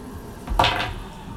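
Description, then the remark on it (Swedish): A die is rolled and tumbles across a hard surface in a quick clatter of two or three knocks lasting under half a second, with no one speaking. “Slå en tärning in så här högt kanske du hittar vapnet, lågt kanske du inte gör det då.”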